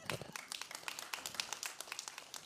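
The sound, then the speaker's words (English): An audience claps steadily during a sermon, many hands producing a dense, crackling patter of sharp slaps that continues throughout at a moderate level, with no one speaking over it. “You can clap for that.”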